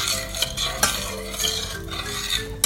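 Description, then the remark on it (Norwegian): A spoon stirs a sugar mixture in a pot on the stove as it is heated until the sugar melts, scraping steadily with a few sharper metallic clinks against the sides over a constant low hiss, with no talking. “Til sukkeret har smelta. Mens man rører rundt.”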